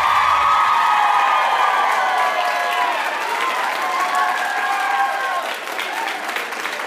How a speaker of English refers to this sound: All right, great round of applause, and uh, not only for the radio show, but I'm guessing mostly for our, our guest,